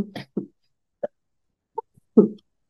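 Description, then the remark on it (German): A series of short, sharp coughs comes in irregular bursts with brief pauses between them, and the last cough is the loudest. No one speaks. “Und von daher muss ich jetzt mal kurz husten.”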